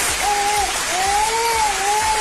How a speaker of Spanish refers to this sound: Producción, por favor, aplausos.